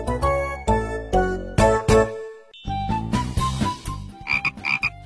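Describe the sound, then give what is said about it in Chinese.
Loud frog croaks repeat in a steady, throaty rhythm, pause briefly, then resume in quicker bursts, with a few faint tinkling high notes toward the end. No one speaks. “因为我每次听故事都能回答对小青蛙提的问题。”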